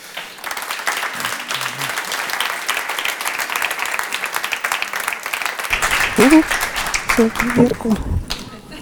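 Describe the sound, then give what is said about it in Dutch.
Sustained audience applause for the last two authors of the evening, a dense wash of many hands clapping at steady loudness for several seconds, with cheerful voices and brief speech breaking through toward the end. “Geeft u ze een hartelijk applaus.”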